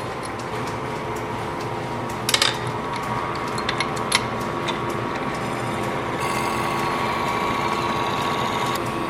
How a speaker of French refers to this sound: Mais je vais démarrer mon tour et puis vous allez voir comment ça fonctionne. Donc là, mon tour a démarré et première chose que je vais devoir faire, c'est le graisser.